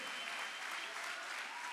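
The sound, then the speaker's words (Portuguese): Steady, dense applause from a crowd, many hands clapping at once in a bright, crackling wash that holds at an even loudness throughout. “Pode aplaudir, Senhor.”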